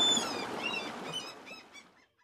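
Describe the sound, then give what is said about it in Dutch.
A seagull calls over the rough sea with a series of harsh, squawking cries over a rushing background, the calls getting softer and sparser before fading out. “Uit de golven springen dolfijnen en boven haar hoofd zingt een meeuw.”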